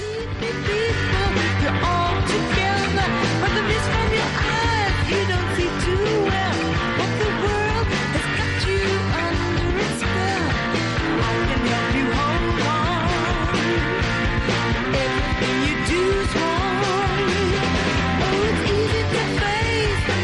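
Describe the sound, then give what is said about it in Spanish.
A loud, dense rock track, the original recording of the song, plays throughout, with driving drums, full-bodied guitars and a sung vocal line riding steadily over the band for the whole stretch. “Vamos a escuchar un poquito cómo suena la original de”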